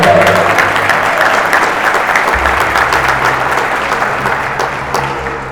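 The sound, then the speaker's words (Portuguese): A church audience at a morning service bursts into sustained, dense applause for God, a steady wash of many hands clapping at once that holds loud for several seconds before easing slightly toward the end, with a low hum underneath. “Aplauda Ele com alegria.”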